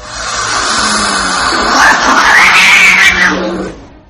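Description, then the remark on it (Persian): A loud, drawn-out cat yowl with a wavering pitch that rises and falls, caterwauling continuously for about four seconds before trailing off, with no one talking. “این دفعه که به چشمان گربه ای زل زدید کمی دقیق تر نگاه کنید شاید گربه مزبور در حال ردیابی حرکات شما و آماده باش برای پرتاب موشک فونیکس خودشه آی گربه چنگولم کشید”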